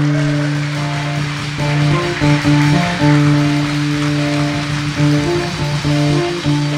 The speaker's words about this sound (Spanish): Está aquí, dale un fuerte aplauso a Jesucristo. Vamos.